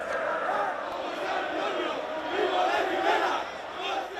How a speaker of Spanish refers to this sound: Y los cánticos, el cara al sol.